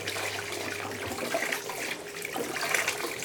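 tap water running

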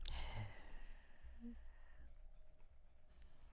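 dog panting

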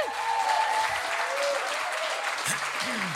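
audience applause

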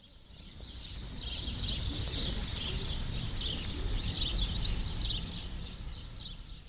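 house sparrow chirping

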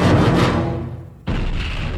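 explosion blast

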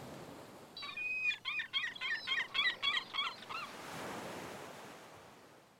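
ocean surf waves breaking

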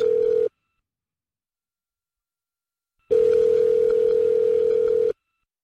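telephone ringing tone

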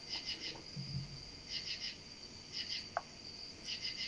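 cricket chirping

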